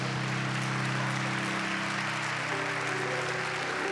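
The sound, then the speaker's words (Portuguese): A church audience applauds God steadily, a dense wash of clapping, with a sustained organ or keyboard chord ringing underneath throughout. “Vamos oferecer um lindo aplauso a Deus.”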